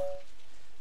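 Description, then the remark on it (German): Heavy rain pours down at night in a steady, dense hiss, a continuous wash of falling water with no voices, and a brief faint tone at the very start. “Es goss in Strömen.”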